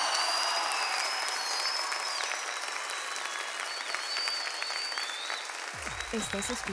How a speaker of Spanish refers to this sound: Un aplauso para él. Venga, venga, venga, venga, venga, venga, venga.